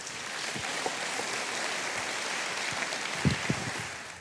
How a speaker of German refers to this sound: noch einmal herzlich willkommen, wollen wir das nochmal ausdrücken mit einem Applaus.